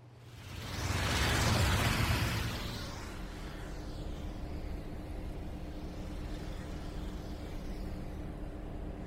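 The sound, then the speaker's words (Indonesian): A vehicle roars past in the first couple of seconds, then a steady low rumble of road traffic continues with fainter passing whooshes, on a road often travelled by buses. No one speaks. “Bener kak, ini jalan yang sering dilaluin bis”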